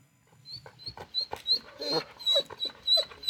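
A dog whimpers and yips in a quick string of short, high-pitched whines, fairly loud, repeating every half second or so with no talking.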